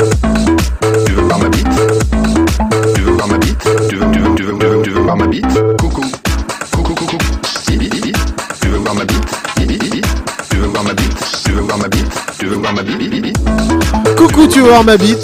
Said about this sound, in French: Mais euh, j'ai retrouvé son morceau de campagne pour 2012. Ouais. Allez, on l'écoute.